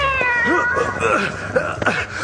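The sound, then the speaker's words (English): A large cat yowls loudly in several rising, wavering cries, with a harsh caterwauling edge and steady background noise throughout. “Quickly, big cat. Get that fat genie.”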